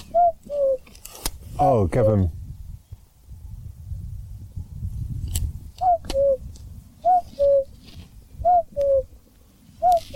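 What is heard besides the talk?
common cuckoo calling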